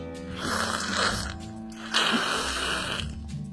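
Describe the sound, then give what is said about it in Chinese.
A horse tangled in rope and a blanket at the foot of a wall breathes weakly and laboriously: two long, raspy, snore-like breaths, each lasting about a second, with a rough wheezing texture and no voices. “墙根底下传来一阵虚弱的呼吸声。”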